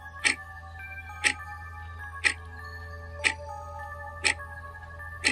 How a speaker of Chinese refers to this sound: 然后这个年轻人就听到呢，很像类似时钟在走动的声音。